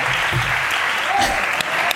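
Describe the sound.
An audience in Alicante claps steadily, a dense, even wash of applause filling the whole stretch, with a faint voice or shout briefly rising through it.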